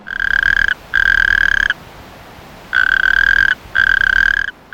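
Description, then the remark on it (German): Natterjack toads call at night in spring in long, loud rattling trills, four extended bursts with short gaps, a chorus from several hundred toads living behind a property fence, with no voices present. “Einige hundert Kreuzkröten leben hinter dem Grundstückszaun. Tagsüber ist von ihnen nichts zu hören, nachts aber beginnen sie zu rufen, im Frühjahr, wenn sie aus dem Winterschlaf kommen.”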